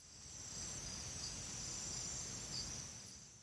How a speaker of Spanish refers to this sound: Es de noche. Como veis, hay ruidos de aves, de insectos, incluso de mamíferos, de animales superiores